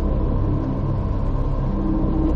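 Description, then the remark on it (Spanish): A loud, almost deafening, continuous low-pitched roar of a burning airplane flying at very low altitude overhead, trailing black smoke, rumbling steadily and densely throughout with no talking. “Un avión en llamas surca el cielo a muy baja altitud, tanto que podéis distinguir casi el olor del combustible y la humeante estela negra dejada por el fuego.”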